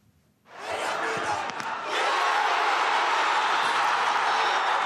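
crowd, football crowd cheering

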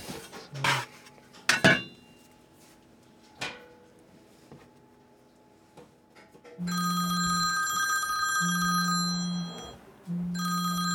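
signal or alarm, mobile phone ringing

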